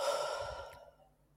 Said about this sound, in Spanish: lo que yo les recomiendo es que tomen aire muy fuerte, hinchen pulmones, abran parrilla costal, que llenen todo lo que puedan de aire. Además, me dicen, ay, digo, nótalo. Dice, ay, como... mira, prueba tú, inspira fuerte, llena a tope y tíralo.